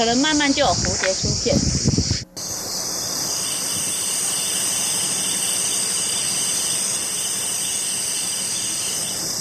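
A dense, steady chorus of cicadas drones loudly and continuously, a high-pitched buzz filling a summer forest in Taiwan. A voice speaks briefly at the start, then the insects continue alone.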